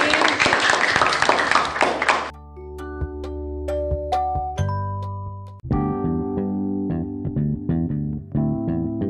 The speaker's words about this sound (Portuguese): Muito obrigada pela participação de vocês. Foi muito legal, muito obrigada. Com palmas para eles também aqui.